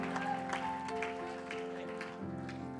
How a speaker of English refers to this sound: If you believe it, can you clap your hands one more time and shout unto God before you're seated tonight? In Jesus' name.